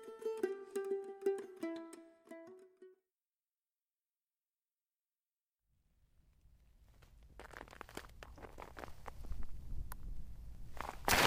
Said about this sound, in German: Barbara ging festen Schrittes auf diese Frau Eberwein zu.